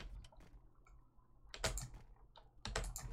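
Rapid, forceful clattering as a computer keyboard is smashed, with dense bursts of key strikes separated by brief lulls, heaviest near the middle and end, and no talking.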